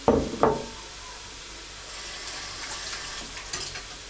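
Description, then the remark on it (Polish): Vegetables for a cabbage soup sizzle steadily in a hot pan on a gas stove, a continuous crackling hiss, opened by two quick clunks of a utensil against the pan; no one speaks. “W czasie, kiedy smaży się już nasza smażeczka, nożeczka.”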